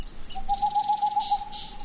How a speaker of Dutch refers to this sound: Nou, we horen nu een bosuil. En dat is heel bijzonder, want het is midden overdag. En hier woont een bosuil, dat is al heel lang, zolang ik hier woon. En die overdag roept.